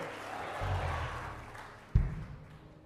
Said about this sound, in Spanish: Vamos, dele fuerte palmas a Dios. A su nombre.